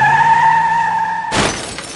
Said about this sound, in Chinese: 哐当，一辆晕头转向的汽车撞上了他们的房子